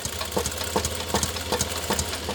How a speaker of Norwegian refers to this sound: tråkka på en pedal. Han har motoren på sin egen symaskin. Han er tenåring, men allerede en skredder.